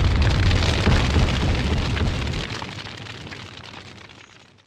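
A massive MOAB bomb explosion roars out with deep, rumbling low end and a broad crackling wash, then slowly decays over several seconds into a fading rumble, with no voices present.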